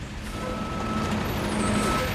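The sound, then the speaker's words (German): A truck engine rumbles steadily as the truck backs up after 9:30 pm, with a faint tonal beep and a hint of air brake hiss over the continuous low drone. “Während der LKW rückwärts fährt, kaut der Kommandant an seinen Fingernägeln und überlegt, welche Möglichkeiten er hat.”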